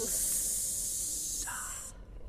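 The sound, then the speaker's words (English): Several voices hold a loud, steady hissing S sound at the end of a shouted Spanish 'adios' for about two seconds, bright and airy like escaping steam, before it cuts off abruptly into near quiet. “now hold the S.”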